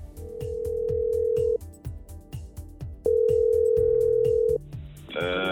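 A phone ringback tone on an outgoing call to a man who once had a vitamin D deficiency: two long, steady mid-pitched tones separated by a pause, over a soft repeating rhythmic background beat, ending in a brief burst of noise as the call connects.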